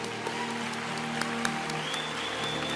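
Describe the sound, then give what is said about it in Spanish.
An audience claps hands steadily in worship to God, dense overlapping applause, with a sustained musical tone and faint instrumental hum underneath. “Y si tengo que aplaudirle a Él con la fuerza de mis manos, Use la fuerza de sus manos.”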